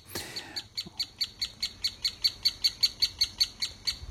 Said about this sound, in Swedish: Det är den större hackspetten som har huggit ut bohål och, som har ungar i, i, i det här naturliga bohålet.